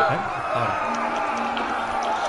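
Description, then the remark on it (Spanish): A dense, steady wash of crowd noise mixed from sound effects of girls and boys screaming, warriors, crowd ambience, shouts and people moaning, many voices blending together at a constant level, with a few louder shouts and drawn-out vocal sounds rising briefly above the din. “Vamos a poner también a, guerreros. Ambiente crowd. Y le vamos a poner a, los gritos. ¿eh? y, a la gente gimiendo también.”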